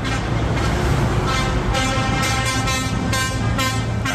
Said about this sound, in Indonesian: Truk-truk membawa bantuan dari Rafah ke Deir al-Balah, di mana bekal bantuan tersebut akan didistribusikan ke berbagai tempat di Palestina.